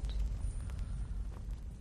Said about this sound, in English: All right, there's a uh, switch on the wall um, directly east of the boss chest. Activate the lever. Secret hole in the wall. love that stone sliding sound.